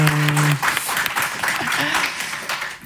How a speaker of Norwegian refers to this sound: Neste er frista en liten applaus for eh, innslaget.